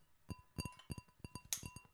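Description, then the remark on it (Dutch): Quiet glass clinks repeat in a quick, uneven series of light taps, each leaving a faint ringing tone, with no talking. “Oh, ASMR met glas. Oh, dit is Oké, dan weet u zeker dat het een glas is.”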